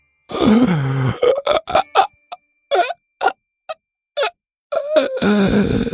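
A big, drawn-out voiced yawn with a groaning, falling pitch, then several short breathy gasps and smacks, ending in another long, groaning stretch of yawning.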